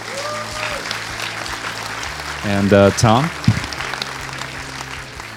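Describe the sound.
Steady audience applause for the panelists at a sound-for-film panel event, a dense wash of clapping from a crowd, while a man speaks briefly over it near the middle.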